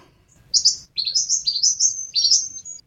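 A brown gerygone calling: a rapid run of high, bright chirps and twittering notes, sung clear for about two seconds, with faint low background rumble and no talking.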